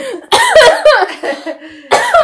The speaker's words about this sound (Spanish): Pero el caso es, marica, qué viejita, como andes que tosiendo y, y riéndose al mismo tiempo.